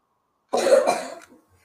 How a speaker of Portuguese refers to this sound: Alguém tá tossindo aí